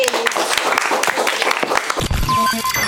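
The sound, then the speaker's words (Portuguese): A burst of steady, dense clapping from a small group for the participants at the end of a conversation fills the first two seconds, then voices rise over the tail end as the applause fades. “Muito obrigada pela participação e palmas pra”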